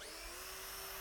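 A power drill used to drive screws runs steadily, its high motor whine holding an even pitch for the whole second with no pauses or speech.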